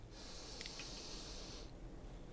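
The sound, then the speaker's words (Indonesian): A single long, airy inhalation lasting about a second and a half during a breathing and stretching exercise, soft and breathy, heard alone over a low background rumble with no talking. “Ulangi lagi, tarik napas.”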